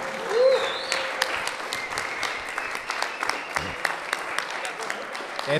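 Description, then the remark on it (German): Steady applause from an audience standing up to clap for a team mechanic, a dense patter of many hands clapping at moderate loudness for several seconds, with faint voices mixed in. “Genau, einmal kurz aufstehen und klatschen.”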